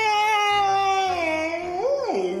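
A single loud, drawn-out frightened yell from a nearby voice, held steady and then swooping up and down in pitch near the end, performed as a fearful shout with no other sounds.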